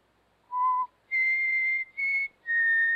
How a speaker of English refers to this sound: I just whistled.